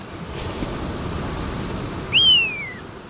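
A Magellanic plover gives one clear, high whistle that slides downward, heard over a steady wash of surf and wind noise. No one speaks.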